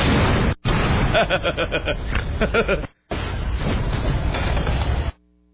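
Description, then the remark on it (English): A loud, roaring explosion of a tank beside a building in a video: a dense rumbling blast that runs for about five seconds, broken by two brief drop-outs, then cuts off abruptly into near silence. “So he's completely blown off the side of a building when this tank explodes.”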